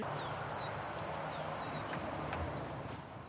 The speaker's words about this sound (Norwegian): Fuglesangen skulle egentlig vært overdøvet av feststemte mennesker i landsbyen i dag.